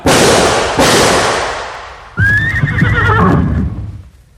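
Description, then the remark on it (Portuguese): Two loud gunshots ring out about a second apart, each trailing off in a noisy echo, as a horse is shot to stop its fleeing rider, followed by the horse's shrill, wavering neigh that fades away. “Infelizmente, cobra, tive que atirar no cavalo para poder detê-lo.”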